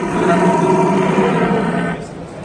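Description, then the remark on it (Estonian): A person, a European champion deer caller, imitates a rutting stag's roar: one long, deep, loud bellow held for about two seconds with a strong harmonic drone, then trailing off. No talking. “… on Euroopa meister ja me oleme Euroopa kõige tublimad hirvepeibutajad”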